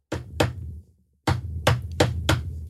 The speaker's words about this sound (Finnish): Eli kolme kertaa mä kopautan sitä palloa, sen jälkeen mä paiskaan se ilmaan